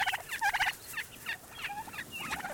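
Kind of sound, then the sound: bird, wild turkey gobbling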